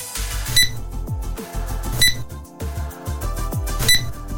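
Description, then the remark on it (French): Three short, high-pitched barcode scanner beeps at a checkout, spaced unevenly over a steady, busy low background hum of store activity. “À votre avis, c'est quoi eh ben, c'est tout simplement euh, l'invention du code barre.”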